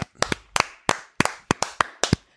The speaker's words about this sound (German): Nee, denn Martin Odegaard, zurzeit ausgeliehen von Real Madrid an Real Sociedad, ist Spieler des Monats geworden. Gerade da kann man, da kann man doch schon mal klatschen.